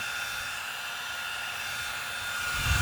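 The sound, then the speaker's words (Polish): A small battery-powered blower weighing 120 grams runs on its third speed setting, giving a constant airy whoosh with a high motor whine, getting slightly louder toward the end, with no one talking. “To jest bieg trzeci.”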